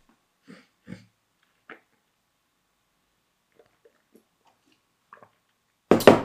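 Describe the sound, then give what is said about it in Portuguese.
Someone drinks water: a handful of soft, wet gulps and swallowing clicks spread out with quiet gaps, ending in a sudden louder breathy rush like an exhale after drinking. “E vou beber água outra vez.”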